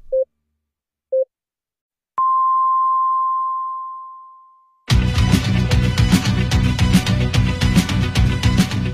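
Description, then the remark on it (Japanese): Nankai Broadcasting radio time signal for 9 p.m. beeps: two short pips, then a long, higher-pitched tone that rings and slowly fades, after which loud music abruptly starts. “南海放送が午後9時をお知らせします。”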